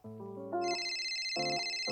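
A mobile phone ringtone plays a bright electronic melody of stepping notes over a steady high-pitched warble, repeating in short bursts, loud, with no voices, as a call comes in on a cell phone at home.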